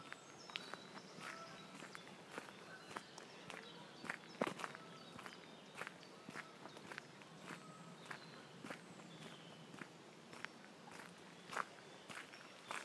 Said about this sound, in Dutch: Dat zijn mijn eigen voetstappen. En ik kies dan een kiezelpaadje uit. Ik vind dat gewoon geweldig om te horen elke keer die stap en het kraken van de kiezels.